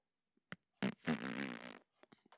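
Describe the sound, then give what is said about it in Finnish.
A voice imitates a whoopee-cushion fart with a short sputter, then one long, loud buzzing raspberry lasting over a second, followed by a few faint trailing splutters. “Olipa hieno pieruimitaatio.”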